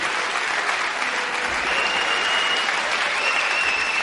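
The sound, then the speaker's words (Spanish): Steady audience applause fills the whole stretch, a dense, even wash of many hands clapping at a constant loudness with no voices standing out. “Sí, me, vais a perdonar, pero durante los aplausos no sé qué hacer.”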